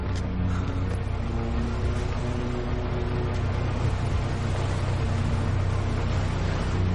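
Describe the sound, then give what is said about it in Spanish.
A ferry's engines drone in a steady, deep rumble layered with broad churning noise as it pulls away from the pier, continuous and fairly loud for the whole stretch, with no voices. “gesto de alivio, contempla tras la verja como el ferrizarpa alejándose del embarcadero.”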